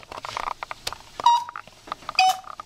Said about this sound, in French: Ah mais c'est l'ami Léonard Léonard Solomon et son majestueux bellophone. la la la la la la. Le bellophone, c'est un instrument entièrement bricolé par Léonard